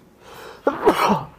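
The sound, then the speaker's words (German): A single fairly loud sneeze: a brief breathy intake, then a sharp forceful burst that trails off quickly, heard on its own without talk. “Gesundheit.”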